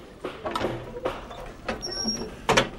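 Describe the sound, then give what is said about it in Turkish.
A door is opened from the outside: a series of knocking, rattling clunks from a latch or handle, with a thin, high squeak partway through, moderately loud. “Dışarıdan açtım ama...”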